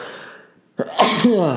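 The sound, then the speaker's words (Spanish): A single loud sneeze bursts out after a brief quiet pause: a sharp inhaled onset followed by a forceful, breathy explosion that trails off with a voiced tail. “Sorry, yo creo que nunca iba estornudado en un podcast anteriormente.”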